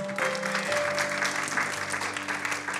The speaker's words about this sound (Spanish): ¿Cuántos dan gloria al nombre de Cristo Jesús? Y fíjese, Romanos, déle ese aplauso fuerte al Señor.